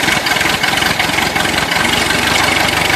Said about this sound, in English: fire up the tractor. Time to harvest another Kirby kernel.